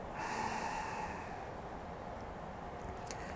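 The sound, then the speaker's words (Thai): A long, steady breath pushed out through the nose during a meditation breathing exercise, after the breath has been held. It is a soft airy rush lasting about three seconds, fairly quiet, with no talking. “หายใจออก”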